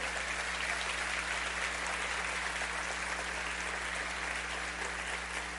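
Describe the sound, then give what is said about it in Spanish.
Sustained applause from a large crowd, given to the Lord for the life of a pastor, fills the space, a dense, steady wash of clapping with no breaks and a low hum beneath it. “Le damos un fuerte aplauso al Señor por la vida del pastor.”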